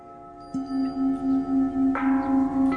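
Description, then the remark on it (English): A large bell at a local church strikes and rings out, rung by participants in a monthly interfaith event called the 11th Hour Calling, with a deep, sustained hum that wavers as it decays, struck again a few times, fairly loud with no voices. “Participants ring the large bell at a local church.”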